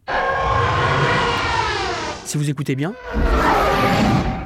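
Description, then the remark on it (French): A loud, roaring science-fiction film sound of fighter ships passing, made from filtered engine sounds mixed with elephant trumpeting, giving a rumble with a shrill, trumpet-like whine, sustained throughout while a man speaks briefly over the middle. “Par exemple, le, son des, chasseurs tits qui passent, là, les, trucs, qui passent. En fait, c'est un mélange de moteurs de je sais plus quoi filtré avec un son d'éléphant.”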